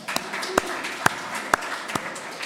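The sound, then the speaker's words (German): Scattered applause from a small audience, a few sharp, distinct claps standing out at a steady pace over a softer, continuous patter of hands. “Vielen Dank, Applaus”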